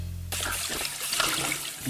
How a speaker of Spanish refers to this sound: Mira, mami, me quedó limpiecito el plato. Te quedó impecable, mi amor. Pero no desperdices agua. Cierra la llave, por favor.